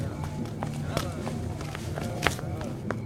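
Quick, uneven footsteps of police officers running from cars into a house at night, irregular thuds and scuffs, over a steady low rumble, with a couple of sharper, louder steps standing out near the end.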